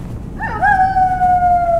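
A wolf lets out a single long howl that swoops up briefly, then holds a loud, steady mid-high note that slowly sinks, with a low rumbling background and no one talking.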